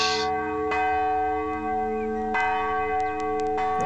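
A church bell tolls at midnight with a deep, ringing resonance, struck roughly every second and a half so each strike blooms over the lingering hum of the last, loud with no one talking.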